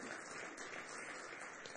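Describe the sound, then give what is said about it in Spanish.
An audience applauding for the Lord during a church sermon, a dense, steady wash of many hands clapping at an even level for the whole stretch, with no voices standing out. “¿Cuánto damos un aplauso al Señor en este día?”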